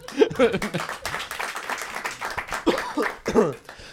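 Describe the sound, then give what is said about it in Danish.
An audience claps steadily for several seconds, a dense, even patter of many hands, with bursts of voices and laughter rising over it now and then. “Man må gerne klappe, det er okay.”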